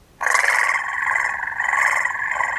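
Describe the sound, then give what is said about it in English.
A voice imitates the deep, raspy noise of a cat named Theodore, one sustained, loud call that starts abruptly and holds steady for over two seconds, with no other sounds around it. “She didn't even have to open her eyes because there was only one cat that made that noise out of all the cats that she knew.”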